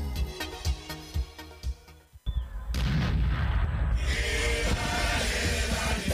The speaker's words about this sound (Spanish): Se vienen los 130 años de gloria y el cielo tiene que explotar como todos los años. Compra tus fuegos artificiales